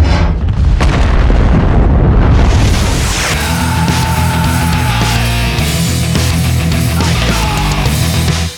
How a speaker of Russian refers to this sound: Вот вам первый бомбеж.